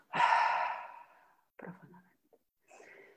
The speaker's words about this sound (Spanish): Toma tres respiraciones profundas. Inhala profundamente. Aguanta la respiración un par de segundos. Y vuelve a exhalar.